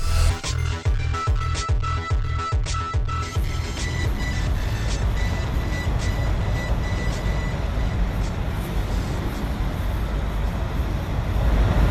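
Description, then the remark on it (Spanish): Heavy diesel engines of buses parked beside the mall idle outdoors, a loud, steady rumble that opens with rhythmic knocking pulses before settling into a continuous low drone. “Este es el sonido de los autobuses aparcados al lado del mall.”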